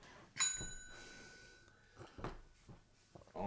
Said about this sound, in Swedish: och jag, jag, ringer klockan. Det är som en bröllopsring eh, i bröllopsklocka här då. Och då börjar skådespelet.